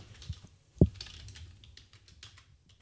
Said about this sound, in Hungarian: Én zavar az, hogy rajtam van a fülhallgató, és nem hallom már tisztán a katogni a mm, billentyűzetet.